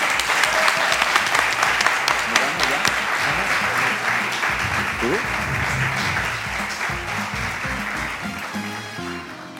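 Sustained audience applause, a dense crackle of many hands clapping steadily for nearly ten seconds, loud at first and easing slightly toward the end, with faint crowd murmur underneath.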